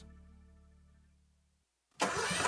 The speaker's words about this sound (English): That's the sound of the day starting out right, and I hear it every time my new Toro Z Master Zero Turn Mower starts up.